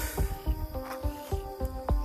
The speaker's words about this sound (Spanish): Me encanta escuchar a las ranas, oye.